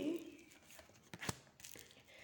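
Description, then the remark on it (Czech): More tarot cards being drawn and shuffled: soft papery rustling and sliding, broken by one crisp snap of a card midway, all fairly quiet. “A ještě tahám další karty.”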